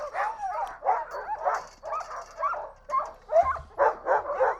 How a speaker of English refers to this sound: We're going to have six dogs. We're going to go about a five mile loop. So this is dog mushing its best. Noisy, noisy, noisy. You couldn't load up. The dogs are super excited.